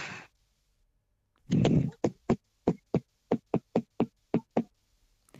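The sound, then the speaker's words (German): A brief rattle, then a lively rhythm clattered out on kitchen utensils: about a dozen sharp clacks in an uneven beat, with no voices. “das auch manchmal so in der Küche, wenn du was rührst oder so, dass du, dass du einen Rhythmus klepperst?”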